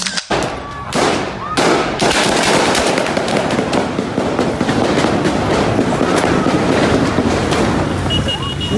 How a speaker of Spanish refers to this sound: manifestación que se realizaba fuera de las instalaciones de la Guardia Nacional en el municipio de Ocotlán, Jalisco, terminó cuando se escucharon detonaciones que algunos presentes indicaron que provenían de adentro del cuartel.